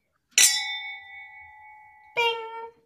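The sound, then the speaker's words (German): A bright, gong-like ding rings out with a sharp metallic attack and a long sustained tone that slowly fades, then a second, shorter metallic strike sounds near the end. “Es klingt so ein bisschen, es gab irgendwie früher so eine, das ist bestimmt, du bist bestimmt viel zu jung dafür, es gab irgendeine so Sendung, wo es auch immer so einen Gong gab.”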